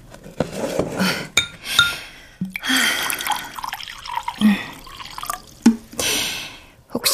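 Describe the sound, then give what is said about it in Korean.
Barley tea is poured into a large rice bowl set out for a dog, in several splashing, trickling bursts, with sharp clinks of the dish between pours and no one speaking. “혹시나 그 개가 먹을까 싶어 커다란 밥그릇에 보리차를 좀 부어놓긴 했다.”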